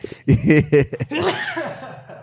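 A person sneezes: a few quick, voiced, halting breaths build up, then a sharp, noisy burst trails off into a breathy hiss.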